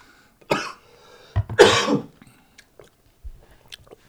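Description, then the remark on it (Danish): A few harsh, sputtering coughs in quick succession after a little water went down the wrong way, with two strong bursts followed by quieter throat-clearing and small catches of breath. “Der kom sgu lige lidt, øh, lidt vand i den øh, gale hals her.”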